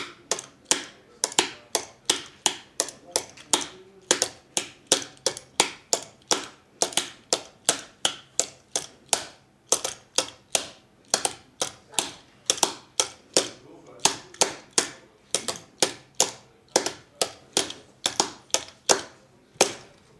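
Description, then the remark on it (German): A steady series of sharp tapping strikes, dozens of them in a quick, uneven rhythm that groups into repeating patterns, tapping out the rhythm pattern of a dance, each tap crisp and percussive, with no one speaking. “Also Rhythmus. Muster. Rhythmusmuster, genau. Ich versuche das jetzt mal.”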